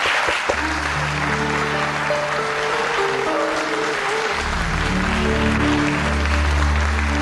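Steady audience applause fills the whole recording, a dense crowd of clapping hands mixed with sustained musical tones underneath, with no one speaking, as the audience applauds the start of a sung song.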